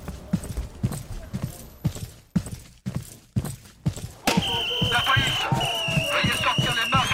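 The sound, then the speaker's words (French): Heavy, evenly paced footsteps thud for several seconds at night, then a busier stretch follows with bright metallic clinking and a low murmur of voices. “Soudain, au cœur de la nuit, des voix, des cliquetis, des bruits de pas lourds les tirèrent de leur sommeil.”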